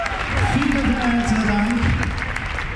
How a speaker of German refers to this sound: Ich denke jedes Mal, wenn ich auf die Bühne komme, es ist schon geil, wenn du so Applaus kriegst, bevor du überhaupt etwas gemacht hast.